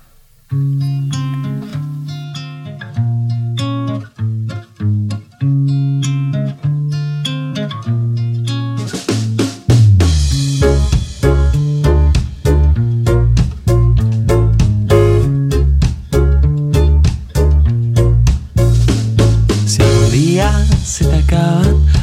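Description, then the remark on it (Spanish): A recorded song plays with no talk over it, opening on steady repeated melodic notes before a driving beat with strong bass and crisp percussion kicks in about halfway, continuing loud and rhythmic. “Vamos a ir con música.”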